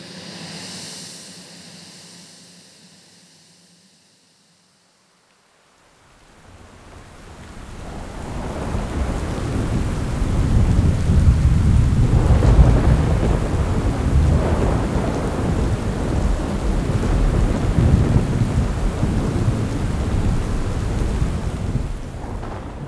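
A heavy thunderstorm in the dark, with lightning: after a brief quiet gap, dense rain falling straight down hisses steadily while deep thunder rumbles and rolls loudly through the downpour, swelling in waves. No one speaks.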